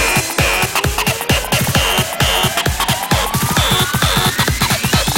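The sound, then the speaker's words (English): Loud, heavily distorted electronic music with fast pounding drum hits, a harsh saturated wall of noise and a rising tone sweeping upward, steady and dense throughout with no voices. “100 more distortion.”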